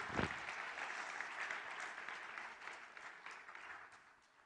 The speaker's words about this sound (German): Danke, liebe Brüder, für euren Einsatz. Gib ihnen einen Applaus. Großartig.